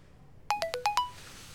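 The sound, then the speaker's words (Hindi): A quick electronic phone message alert as a text message from an unknown number arrives early in the morning: five bright, rapid tonal chimes in a rising-falling pattern, followed by a faint fading tail and silence. “next day early morning Alisha को एक unknown number से मैसेज आता है और वो मैसेज सुयश ने किया होता है”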